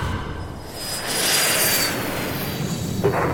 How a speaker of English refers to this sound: She ran for her life, barely registering the F 22 Raptor that was now in final approach and firing its last air to surface missile that would incinerate what remained of Iron Gate.